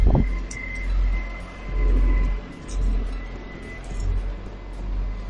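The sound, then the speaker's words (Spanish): A garbage truck idles and works collecting rubbish in the morning, its heavy engine rumbling in slow swells with a thin mechanical whine and occasional clanks and hisses above it. “Pero bueno, mira qué bonito recogiendo la basura por la mañana.”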